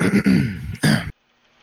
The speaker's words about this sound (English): Um, all right, so after a minute or two, Steel Scar, uh, the barkeep, you see him kind of um, kind of clearing his throat.